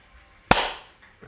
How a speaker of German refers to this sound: Und 3, 2, 1, Klatsch.